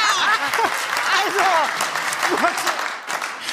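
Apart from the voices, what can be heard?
audience clapping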